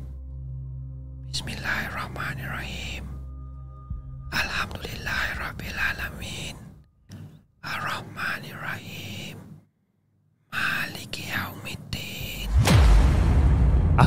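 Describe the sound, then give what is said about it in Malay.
An eerie whispered recitation of Al-Fatihah, heard close behind a person during the third rakaat of their prayer: breathy phrases coming in bursts separated by short silences, ending with a louder rush of hissing breath. “aku dengar macam ada makhluk ataupun macam ada seseorang dekat belakang aku tengah baca Al-Fatihah”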